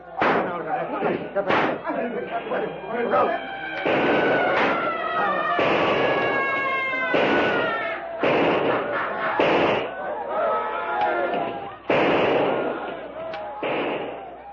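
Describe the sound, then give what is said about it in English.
A chaotic battle: sharp, booming gunshots crack out at irregular intervals as a rushing crowd surrounds a small group fighting for their lives, while many voices yell, shriek and bellow over each other throughout, loud. “Shrieking, bellowing, many now spouting blood from gunshot wounds, the yellow men rush close and surround the little group of whites as they stand fighting desperately for their lives.”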